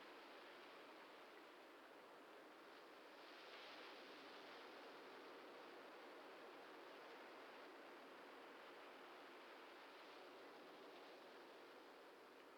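Ocean waves wash onto a shore in a soft, steady, faint surf, with no distinct breaks or crashes, just a continuous hiss that swells slightly now and then. No voices.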